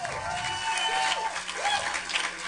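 A crowd claps steadily and densely for a few seconds, a sustained wash of applause with a few whoops rising above it, fairly loud.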